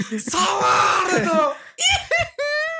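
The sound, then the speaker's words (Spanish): A man lets out a loud, shrill squealing scream: one long strained wail, then two shorter high-pitched squeals in quick succession. “El término es squealing.”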